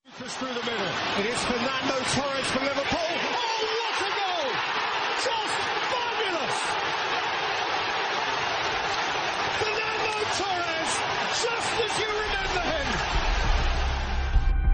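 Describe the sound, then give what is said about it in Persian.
A loud, continuous roar from a stadium crowd celebrating after a goal is scored, with an excited match commentator's voice rising and shouting over the dense wall of cheering throughout. “صدایی که در ابتدای کاوشای من شنیدید صدای ورزشگاه و گزارشگر بازی پس از گلزنی”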